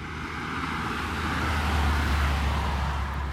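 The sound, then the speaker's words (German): Steady road traffic rumbles, a broad low roar that swells slightly as a vehicle passes, with no voices over it. “vielleicht ein bisschen bessere Qualität und ohne Autos.”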